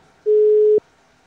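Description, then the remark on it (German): A single steady telephone ringback tone sounds once for about half a second as a call is placed again after a dropped call, clear and fairly loud, with quiet background before and after and no one speaking. “wir beenden jetzt diesen Call und ich rufe einfach nochmal bei René und Tim an”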